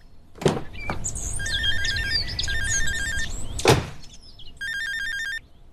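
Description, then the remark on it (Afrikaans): A father's cellphone rings inside a car with a warbling electronic tone in short repeated bursts, fairly loud, alongside a couple of sharp knocks or clunks and a low background rumble. “Sergeant, ek het nie die nommer herken nie. Dis my pa se selfoon.”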